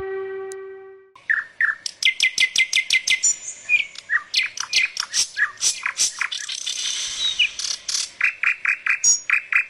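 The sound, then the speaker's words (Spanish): A mockingbird sings a long, varied run of bright, high phrases: rapid repeated chirps, trills and rattling bursts in quick succession, fairly loud with no voices present. “Canto de Cenzontles.”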